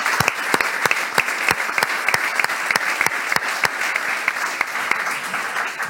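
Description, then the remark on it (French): An audience applauds the country's local elected officials steadily for several seconds, a dense wash of clapping with sharp, evenly spaced claps punching through in a rhythmic beat before blending back into the general applause. “Je vous propose qu'on applaudisse les élus locaux de notre pays.”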